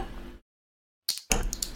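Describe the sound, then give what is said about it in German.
After a brief silence, glasses clink together in a toast celebrating a tenth anniversary, a couple of bright ringing taps followed by clattery handling noise. “Äh, Pröstchen, nicht lang schlagen Kopf in Namen. Prost.”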